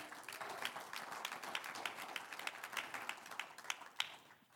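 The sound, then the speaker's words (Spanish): A crowd applauds steadily during a sermon, offering applause to the one who lives, many hands clapping in a dense, crackling wash with sharper individual claps standing out, fading slightly toward the end. “Un aplauso al que vive.”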